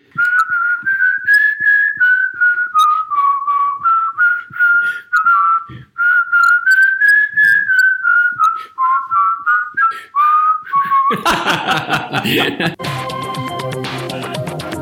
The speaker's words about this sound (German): da bleibt mir fast nur noch eins äh, irgendwie so zu pfeifen.